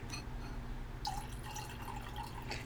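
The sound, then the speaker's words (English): Red wine pours into a glass with a soft, steady trickle and small bubbling glugs, a faint low hum running underneath, with no talking. “Because we all know that everything is just a little bit nicer with a beautiful glass of wine, and today it's red, so hey, beautiful glass of red wine.”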